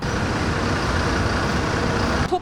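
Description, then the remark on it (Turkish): Steady, loud roadside traffic at a crowded bus stop, with heavy engines rumbling as buses and trucks idle and pass, continuous throughout with a brief change at the very end. “taşıma araçlarının içinde sosyal mesafeyi koruyabilmek bir yana şu anda bu durakta bile mesafeyi koruyabilmek mümkün değil.”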